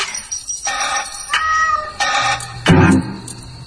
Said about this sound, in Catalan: ella es pensava que era un gat qui l'estava movent, el seu gat, però el gat resulta que miola a una altra habitació